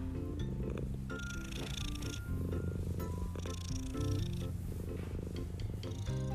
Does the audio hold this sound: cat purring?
yes